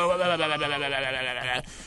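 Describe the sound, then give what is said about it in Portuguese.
A voice mimics a goat's bleat, mocking the hoarse voice of a smoker on World No Tobacco Day, in one sustained, wavering cry lasting about a second and a half, loud, with a tremulous rippling quality before cutting off abruptly. “Que tá com aquela voz de cachorro louco, né? De bode seco.”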